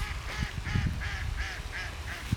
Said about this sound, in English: Another laugh from a duck coming from our ways.